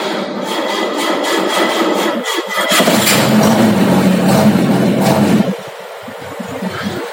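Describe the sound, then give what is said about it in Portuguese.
A carburetted car engine cranks after two pumps of the accelerator and catches, roaring up loudly for a few seconds with a dense mechanical rumble before dropping back to a rough, uneven idle. No one speaks. “duas bombadinhas no acelerado aqui. Hum. Fiz que pegar.”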